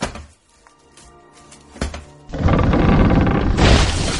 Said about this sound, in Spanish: Vaya, ya están aquí los leñadores. Me estremezco solo por verlos. Los grandes árboles, tan espléndidos, tan esbeltos, caen al ser cortados con un sonido estrepitoso.